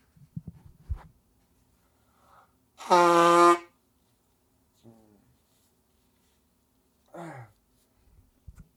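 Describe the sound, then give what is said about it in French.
Someone blows their nose in one loud, honking burst lasting under a second, with a few fainter snuffles and breathy noises before and after. “Je vais me moucher, je vais me moucher, gars.”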